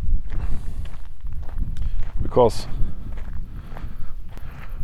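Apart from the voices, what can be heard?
wind blowing outdoors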